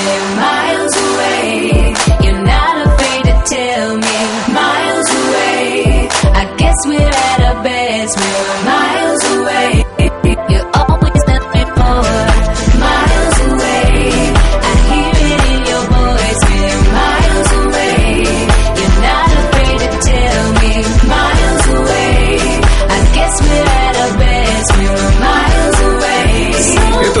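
A pop song plays loudly and continuously, with a steady driving beat and layered synth and instrumental parts filling the full track without pause.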